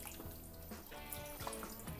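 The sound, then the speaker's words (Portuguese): Liquid draining out of an opened can of corn, a steady trickle and splatter with small drips and bursts, continuous for the whole moment with no voices. “Vamos segurar aqui o milho, deixar essa aguinha escorrer.”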